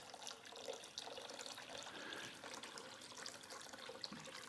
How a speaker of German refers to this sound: wie das Wasser über den Altar geschüttet ist worden.